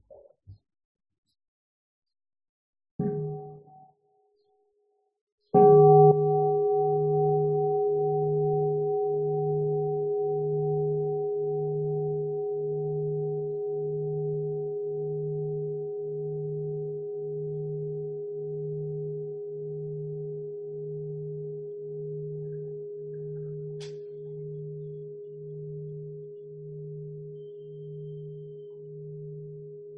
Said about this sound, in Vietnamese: và trước khi mà mình à, đi vào bốn cái cách này thì sẽ có thỉnh chuông cho mọi người buông thư cái cái thân tâm